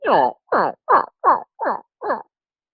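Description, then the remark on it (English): Six slow, evenly spaced yelps from a two-inch Osage turkey tube call, each a coarse, raspy note with falling harmonics, loud and alone, in a deliberate jake cadence. “It's a two inch Osage tube call that I Jake Yelp on, he goes, anytime you slow it down to a Jake cadence”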